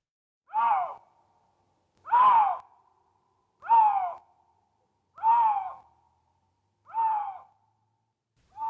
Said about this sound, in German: Nein, das ist nicht der Ruf einer seltenen Vogelart. So klingt der Luchs. Die Raubkatze soll bald wieder durch eines der größten Waldgebiete Deutschlands streifen, den Pfälzer Wald.